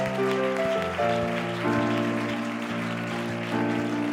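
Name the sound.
audience clapping hands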